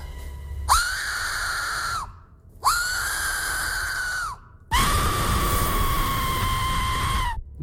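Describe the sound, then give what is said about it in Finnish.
A shrill whistle is blown three times: two steady blasts of about a second and a half, then a longer, harsher final blast, loud with no talking. “Ja toi on pilli.”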